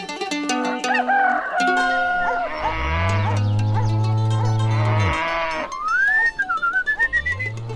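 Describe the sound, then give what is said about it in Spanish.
A cow named Margarita lets out one long, deep moo lasting a couple of seconds, loud, in a stable amid busy farmyard noise of clucking and crowing fowl before and after. “Esta es la vaquita más linda de mi establo, Margarita.”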